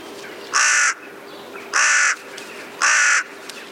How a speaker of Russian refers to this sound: Еще один способ отличить ворона от вороны — это голос. Ворона каркает вот так.